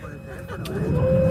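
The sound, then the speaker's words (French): Steady low engine rumble from inside a moving bus in Doha taking a judoka back to her hotel during the world judo championships, growing slightly louder, with a faint whining tone and muffled voices in the background. “Elle est avec nous en direct de Doha, dans le bus, même pour rentrer à son hôtel où se déroulent les championnats du monde de judo.”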